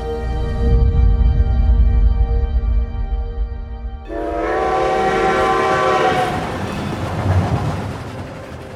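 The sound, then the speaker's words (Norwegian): A loud, sustained train horn blares for several seconds, then shifts pitch as a train from New York to Chicago rumbles along the rails with a steady mechanical roar and rattling. “derfra bærer de videre med tog til Chicago.”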